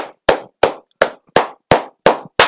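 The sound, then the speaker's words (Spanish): Applause as slow, steady hand clapping: about seven sharp, loud claps evenly spaced roughly a third of a second apart, each with a short ringing tail, and no voices. “Muchos aplausos a esta señora, porque tiene razón, ya nadie usa CD.”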